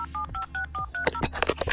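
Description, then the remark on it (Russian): A rapid series of telephone keypad tones as someone dials to call Rostelecom, about seven short dual-pitch beeps in quick succession, followed by a burst of louder clattering, crackly noise near the end. “Я начинаю звонить Ростелекому, типа, алло,”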